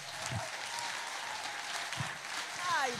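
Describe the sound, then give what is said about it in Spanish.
An audience breaks into steady applause, a dense wash of many hands clapping that holds at an even loudness throughout, with a few scattered voices and a brief rising whistle-like cry near the end. “Y si hay alguien aquí que le queda la cobertura, que le dé un aplauso.”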